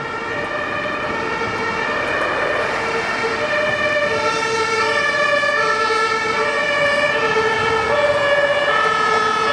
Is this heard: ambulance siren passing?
yes